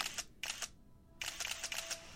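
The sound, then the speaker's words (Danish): A camera with a telephoto lens fires its shutter in quick bursts while photographing a surveillance target: a few rapid clicks, a short pause, then a longer run of snappy mechanical clicks, crisp with no voices. “Operativ teknik til realiseringen af overvågningen, og især til fotodokumentation af målobjektet og eventuelle mødepartnere, benytter de et kamera med teleobjektiv, der står til deres rådighed.”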